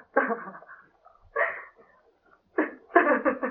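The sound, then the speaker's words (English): A woman sobs in a series of short, gasping bursts, with brief quiet pauses between them. The crying is fairly loud, and no words are spoken. “He turned back, and there on the bottom step of the guillotine sat a woman, crying bitterly.”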